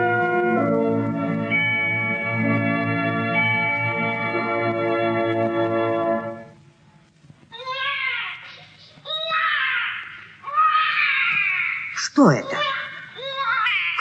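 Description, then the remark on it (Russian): A steady droning tone gives way to someone crying: four or five high, wavering wails and sobs, each rising and falling in pitch, with short breaths between them. “Кто-то плачет.”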